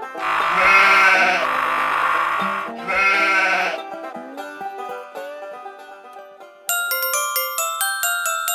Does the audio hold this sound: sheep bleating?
yes